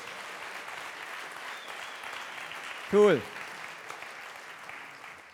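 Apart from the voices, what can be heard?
audience applause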